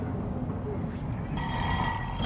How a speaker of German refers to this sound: Da ist der Wecker. 4 Uhr. Ist immer noch 4 Uhr.